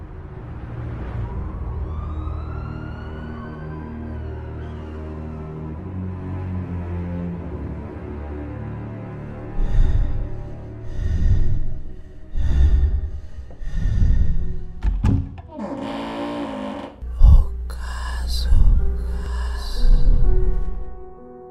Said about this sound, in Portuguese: solta a vinheta, por favor. Muito obrigada.